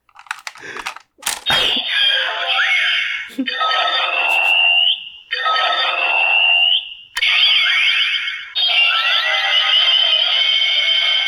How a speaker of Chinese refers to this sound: 那个变声器还有变声音的效果，是不是？ 变声音是怎样？ 因为我刚刚听你的声音有很奇怪的，哦哦，那是变声器的音乐是不是 那是音乐，那是音乐。